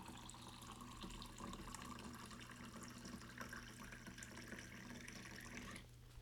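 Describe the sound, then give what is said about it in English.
Wine pours steadily from a wine box spout into a glass to top it off, a continuous gurgling trickle of liquid lasting several seconds before cutting off abruptly, with no one speaking. “And I brought the box, and it, the point of bringing the box is to to refill, isn't it? And to make this sound effect on the recording.”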